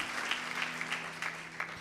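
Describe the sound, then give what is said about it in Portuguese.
A crowd applauds steadily, a dense wash of many hands clapping at a moderate level, with a few sharper claps standing out and a faint low hum underneath. No one speaks. “Você pode aplaudir mais forte, Senhor.”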